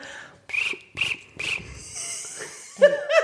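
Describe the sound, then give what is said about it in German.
A voice mimics a cricket with three quick, raspy chirps in a steady rhythm, fairly loud, followed by a breathy hiss and a short burst of laughter. “Und das dreimal hintereinander in kurzen Abständen dann haben wir eine Grille.”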